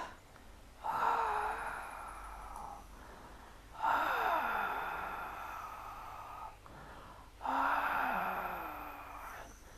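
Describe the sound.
A voice imitates a tiger's growl in three long, rasping, breathy roars, each lasting a couple of seconds with short pauses between, loud.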